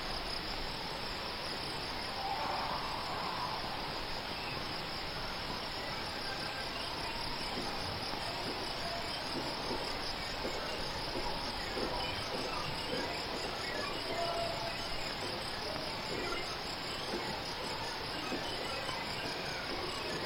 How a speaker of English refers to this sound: a carried aural signal of night in the ghost insect's calling, which calls up memory and past sensation in the audience members, infusing their shared experience of this presentation with threads from their intimate and internal lives.